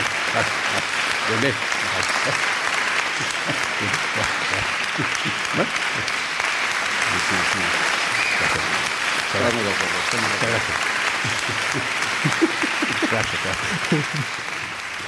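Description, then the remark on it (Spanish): Sustained audience applause, a dense, steady wash of clapping lasting about fifteen seconds, with voices faintly talking and calling out underneath before it trails off slightly at the end. “Hombre, tú estás acostumbrado a, los aplausos,”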